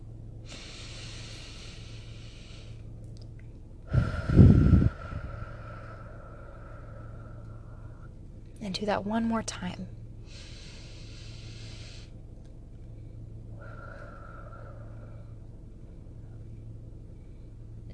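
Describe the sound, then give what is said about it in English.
Several slow breaths for a breathing exercise, in through the nose and out through the mouth, each a drawn-out airy hiss, with a couple of sharper sniffing intakes, over a steady low hum. A voice briefly speaks between them. “So, we're going to breathe in through the nose and out through the mouth.”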